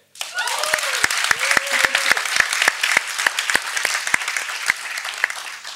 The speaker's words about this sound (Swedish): En applåd för det.